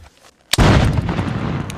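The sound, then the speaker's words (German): A single cannon shot booms out from far away after a brief quiet, followed by a long, heavy rumble that rolls on and slowly fades, with no voices. “Ein Kanonenschuss ist aus der fernen Weite zu hören”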